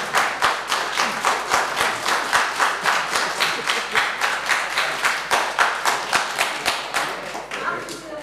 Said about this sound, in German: der Applaus gilt Ihnen.